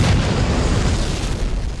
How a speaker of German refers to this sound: Explosionen?